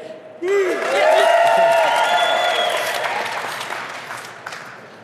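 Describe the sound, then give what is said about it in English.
A burst of audience applause with scattered cheers and whoops rising on top, as the audience votes by applause for the team they think won, sustained loudly for a few seconds before gradually tapering off. “Give them a round of applause if you think they won.”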